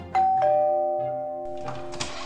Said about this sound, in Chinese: 又过了十分钟，有一个人按了一下门铃